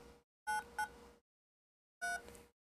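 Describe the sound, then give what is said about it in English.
Phone keypad dialing tones as a phone number is typed in: a quick pair of short electronic beeps, then after a pause a third, each a clear dual-pitched tone, distinct with no voices. “First of all, I gotta type the phone number.”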